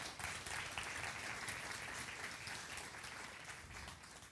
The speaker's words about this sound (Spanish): Un aplauso por favor para las hermanas.